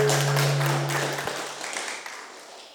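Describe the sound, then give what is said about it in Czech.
A crowd applauds to thank guests for coming, with dense, steady clapping that starts full and gradually thins and fades over a few seconds, with a faint low hum in the background. “Můžeme jim zatleskat, poděkovat jim, že přijeli.”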